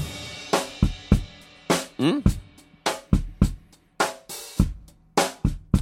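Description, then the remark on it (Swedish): A drum kit, picked up by a single close Yamaha EAD10 microphone, plays a steady, punchy beat with thumping kick drums and sharp snare cracks in a quick rhythm. It sounds dry and loud, with a brief murmur from a voice. “Då, då, om du spelar lite grann så är det bara den, det ljudet från själva micken.”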